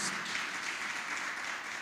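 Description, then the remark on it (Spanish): A crowd at a church gathering applauds steadily for viewers watching through Canal 3 and social media, a dense wash of many hands clapping at even loudness throughout, with no distinct individual claps standing out and no voices. “Y todos los que estamos aquí presentes, ¿por qué no le damos un fuerte aplauso a esta gente que está ahí conectada?”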